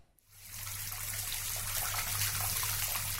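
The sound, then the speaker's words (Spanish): A steady stream of water runs from a tap, starting abruptly after a brief silence and continuing with a constant hiss and a low hum underneath. “Es un chorrito de agua que sale del caño.”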